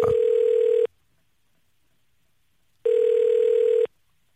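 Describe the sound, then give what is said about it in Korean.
Two steady electronic ringback tones from an outgoing phone call placed by a radio DJ to a listener, each lasting about a second with a pause of roughly two seconds between them, clear with no voices. “자, 5052님, 전화 한번 걸어보겠습니다.”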